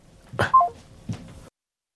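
A phone number being dialed: a brief run of short, mid-pitched keypad beeps between two soft clicks or taps, with no voices, then silence.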